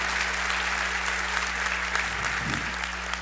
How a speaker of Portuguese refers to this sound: Eu, particularmente, achei tão lindo hoje a música da equipe, da banda e todo mundo. Dá uma salva de palmas para esse pessoal. É muito bonito.